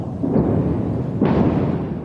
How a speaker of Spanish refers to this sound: explosiones se oyen a la distancia.